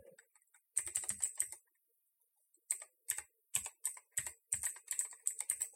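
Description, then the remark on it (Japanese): Crisp computer keyboard typing in quick bursts of clattering keystrokes during a broadcast, broken by a couple of short pauses, with no one speaking. “カタカタカタカタと、キーボードの音だけが流れる放送になってますね。”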